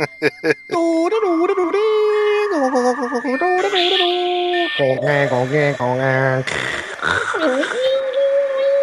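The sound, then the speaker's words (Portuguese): A voice imitates a 56K dial-up modem connecting, starting with a few sharp clicks and then sliding into warbling, screechy tones and buzzing pitches that rise and fall for several seconds, loud. “Tá me deu saudade do modem 56K.”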